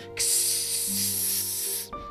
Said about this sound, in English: A tiny asteroid made of space crystal punctured the hull of the Hopalopter, causing a leak.